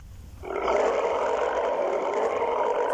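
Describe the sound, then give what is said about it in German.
A deep, sustained T-Rex roar in a video game, from a T-Rex in an enclosure, swells in after a brief quiet moment and holds loud and steady for several seconds, rumbling and broad. “Ja, ja, brüll doch.”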